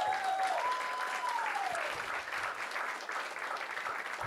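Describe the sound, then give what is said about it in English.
An audience claps steadily for several seconds in a round of applause for the speaker's wife, a dense, even wash of many hands at a moderate level, with a faint whistle-like tone sliding downward early on. “My wife, she deserves a round of applause.”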